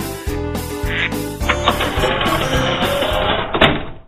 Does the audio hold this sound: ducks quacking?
yes